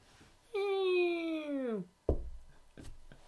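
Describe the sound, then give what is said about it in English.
A heavy wooden door, like a fire door, swings shut: a long, loud creak that slides downward in pitch, then a solid, deep thud, followed by a few faint clicks. “See, that was a heavy door. It was like a wood door. It's like a fire door.”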